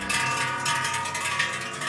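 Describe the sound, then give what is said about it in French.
Cow bells that have been in a family for five or six generations clang continuously in an irregular jangle, many metallic tones overlapping into a dense, steady ringing with no voices present. “C'est vrai que ces cloches, quand on les entend taper, ça a une sonorité euh, particulière qui, qui, je pense, prend les gens au cœur quand même.”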